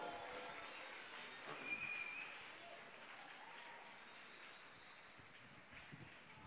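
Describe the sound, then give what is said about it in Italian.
Sustained applause from a crowd at the OGR during a twentieth-anniversary concert with several bands, a dense steady patter of clapping that stays fairly even throughout, swelling slightly early on, with faint whistles and cheers mixed in. “Ciao a tutti ragazzi, grande applauso per Piero, per tutti i grandi gruppi che sentirete stasera.”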